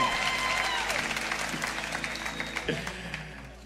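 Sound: audience applauding and cheering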